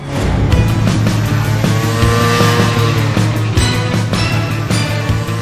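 A car engine roars loudly and steadily with rising and falling revs, tires squealing briefly, as a vehicle speeds by; no one speaks.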